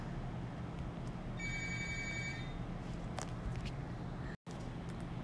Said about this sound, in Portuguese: Enfim, a gente deu uma paradinha na gravação porque o telefone do escritório começou a tocar.